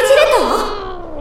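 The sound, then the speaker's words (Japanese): A black cat gives a single drawn-out meow while holding a letter in its mouth, fairly loud, its pitch wavering and dipping in the middle before trailing off. No talking. “どうしたんだろう黒猫ちゃんあなたが加えているのは”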